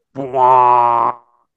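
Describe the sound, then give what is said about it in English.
A voice imitates the huge horn blast from the Inception trailer: one loud, sustained, low buzzing drone lasting about a second, swelling slightly after a brief onset and then cutting off abruptly. “like the the the that one noise from the Inception trailer that you ah. heard forever.”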